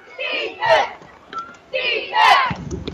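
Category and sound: crowd, football fans shouting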